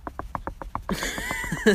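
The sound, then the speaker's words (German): A voice imitates woodpecker drumming: a quick, even run of about seven tapping clicks, then a louder, breathy burst of noisy vocal sound as the imitation breaks off. “so, das war der Specht.”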